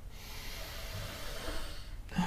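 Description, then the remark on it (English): Slow, deep diaphragmatic breathing during a guided breathing exercise: a long airy inhale-exhale with a soft noisy hiss and no talking, ending in a brief sharper intake of breath. “Try and do good diaphragmatical breathing.”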